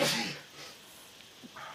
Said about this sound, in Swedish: Prosit! Ja, tack.